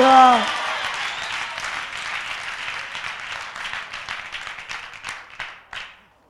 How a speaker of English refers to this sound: Clap your hands and give the Lord a shout of victory.